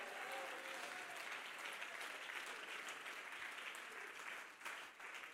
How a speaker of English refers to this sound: Come on, I think somebody will jump to your feet and clap your hands and say, We need to hear truth nowadays. Come on, clap your hands and praise the Lord, for He is good.